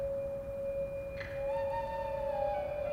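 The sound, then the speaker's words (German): Soft, breathy flute tones: one steady held note runs throughout while a second, higher note slides in and wavers above it, quiet and alone with no voices. “Flötentöne.”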